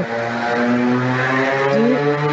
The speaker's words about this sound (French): Attends, j'ai entendu la moto. Il y a un petit scooter, désolé.